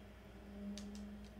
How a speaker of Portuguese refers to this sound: Pô, eu tô, eu tô ouvindo muito clique ali do PC do. Da, da, dire, da direção ali. O cara tá jogando LOL, mano? Tá jogando LOL aí, cara?